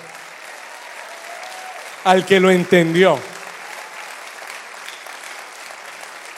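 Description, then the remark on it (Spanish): Steady audience applause fills the whole clip as a dense, even wash of clapping. A man speaks briefly over it partway through, and the clapping keeps going underneath. “Eso merece un aplauso”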